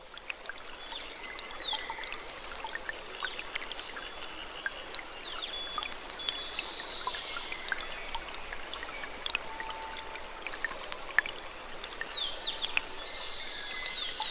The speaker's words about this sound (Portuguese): Logo escutamos o som de uma harpa d'água ainda maior e mais potente do que a que encontramos antes.